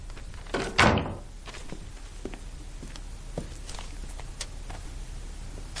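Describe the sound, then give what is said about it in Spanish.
A wardrobe door is opened and shut again, with one loud wooden thunk near the start followed by a few soft clicks and knocks over a quiet background, as someone opens it, sees the waiter inside in his underwear and closes it. No one speaks. “Abre la puerta y ve al camarero en ropa interior. Vuelve a cerrar.”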